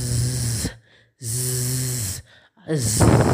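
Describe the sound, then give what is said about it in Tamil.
A voice imitates a flying bee's buzz to show the sound of the letter Z in a phonics lesson, with three sustained 'zzz' hums, each fairly loud, separated by short pauses. The last buzz is slightly stronger. “next G ஜியோட sound ஒரு ஒரு B வந்துட்டு பறந்துக்கிட்டே இருந்தால் எந்த சவுண்டு வரும்”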